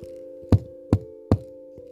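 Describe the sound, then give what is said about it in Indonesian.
Three firm, evenly spaced knocks by a young man on the door of a house, distinct, with a soft steady musical drone humming underneath the whole time. “Dan pada akhirnya ia kembali dan mengetuk lagi.”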